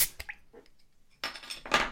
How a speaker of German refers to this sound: So, und zwar habe ich gerade mit einem Fritz-Cola-Augenöffner, ähm, Flaschenöffner, eine Afri-Cola aufgemacht.